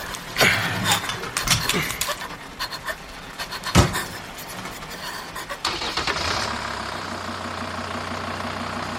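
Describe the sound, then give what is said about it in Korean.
A few clunks and rattles, then a man starts a truck and puts it in gear; the engine turns over and settles into a steady, rumbling idle in the rain, with no voices. “그가 시동을 걸고 기어를 넣는 내내 정준은 추위에 이가 부딪히고 눈앞이 아득하여 아무 말도 나오지 않았다.”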